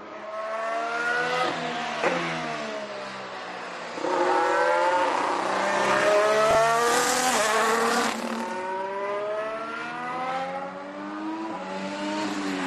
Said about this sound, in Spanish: Y vamos con el coche más rápido en la actualidad de la Fórmula 1.